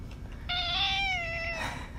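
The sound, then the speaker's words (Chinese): A single drawn-out cat meow, fairly loud and steady in pitch, lasting about a second before trailing off, with a low background hum and no talking. “好吧，就让你跟我一起一起喵吧，好不好？”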